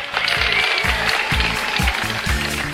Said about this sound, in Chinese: 感谢感谢各位的掌声啊！